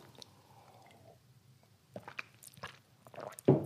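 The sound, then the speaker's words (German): Quiet wet mouth sounds of someone sipping water, a few soft slurps and gulps in quick succession, ending in a louder swallow. No one speaks. “Ich brauche mal eben einen Schluck Wasser.”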